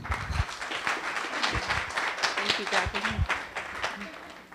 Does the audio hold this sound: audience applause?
yes